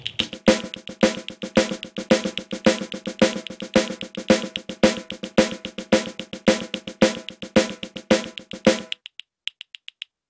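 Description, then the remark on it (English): A steady, driving drum exercise played with brushes or sticks on a snare, repeating a chugging shuffle rhythm as a Nashville-style train beat for about nine seconds, then a few light taps fade out. “And this also makes a great train beat, by the way, in Nashville.”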